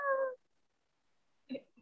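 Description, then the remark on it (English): A person imitates an angry cat with a short, strained, nasal yowl at the start, followed by a pause and a brief murmur of voice near the end. “I can do kitty sounds. I can do an angry angry cat sound.”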